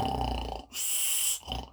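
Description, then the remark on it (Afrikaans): A voice mimics loud snoring: a rough, rattling snort on the inhale, a long airy hiss, then a shorter snort starting again; imitating a farmer snoring in his sleep inside the house. “Ja, my man lief, maar hoor net hoe verskriklik snork jy nou.”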